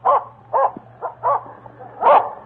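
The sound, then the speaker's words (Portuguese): A dog barks angrily in a rapid series of about five loud, harsh barks, with a low steady hum running underneath. “O cachorro, cada vez mais furioso, já mordera a montaria e agora tentava alcançar as botas do dono.”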